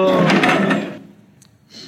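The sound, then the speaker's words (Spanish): A chair gets kicked, giving a loud scraping clatter that lasts about a second before dropping to near silence, followed by a faint hiss at the end. “Sí, al final ha dado una patada a una silla.”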